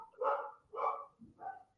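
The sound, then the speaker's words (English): A dog barks three times in quick succession, sharp, with short pauses between each bark and no one talking over it. “doggo, Aha, doggo.”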